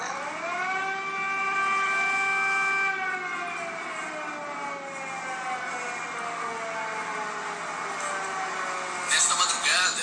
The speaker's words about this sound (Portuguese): O governo chegou a acionar sirenes, informando a população sobre os bombardeios.